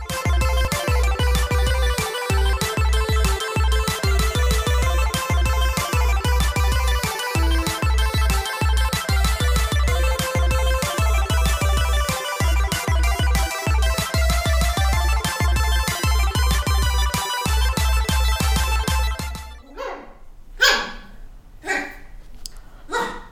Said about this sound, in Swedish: Vad är det där? Det är mina hundar. Slåss de? Nej, de, de leker. Så om du tycker att jag kollar ner mycket så är det för att jag kollar så att de inte biter ihjäl varandra.